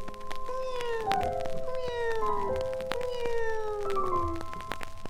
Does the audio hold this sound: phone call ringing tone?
no